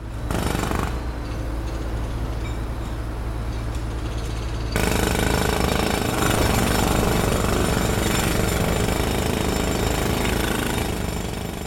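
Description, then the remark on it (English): A jackhammer pounds away at a construction site outside a home's door, its rapid hammering loud and continuous, growing harsher and fuller partway through as more machinery joins in. No one speaks. “Yeah, but but this is what I hear outside my door nowadays because construction is everywhere.”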